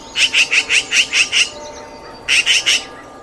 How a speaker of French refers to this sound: Tu te promènes tranquillement dans un village et des cris t'interpellent. Tu n'as pourtant rien volé Oh Mais c'est une pie